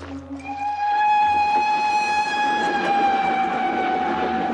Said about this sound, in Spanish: Por la noche un tren a vapor atraviesa una planicie.